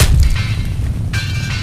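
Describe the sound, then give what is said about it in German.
A metal bear trap that hung on a tree falls down after the third hit: a heavy thud, followed a moment later by a bright metallic clank and ringing rattle as it settles, with no voices. “ist mir es runtergefallen das heißt, wenn man aufpasst hat, vorhin ist nämlich da eine Bärenfalle am Baum umgehängt und die ist jetzt noch im dritten Schlag runtergefallen.”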